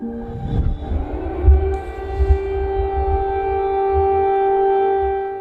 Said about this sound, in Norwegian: Nødetatene melder at flyalarmen har gått over hele landet, men det har så langt ikke kommet noen meldinger om drepte eller sårede.